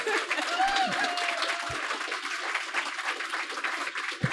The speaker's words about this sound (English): Dragon Con is not over, as this crowd proves. Um, I don't need to introduce Tim Zahn, but we can give him a round of applause.